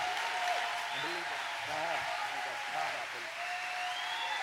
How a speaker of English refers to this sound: Clap your hands, higher vision, one more time.